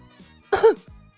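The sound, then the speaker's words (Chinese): A single short cough, a sharp, breathy burst with a throaty edge, followed by a brief low hum of voice as it trails off. It stands alone, with no speech. “幽姬咳嗽一声，回头看了眼碧瑶，强行引开了话题。”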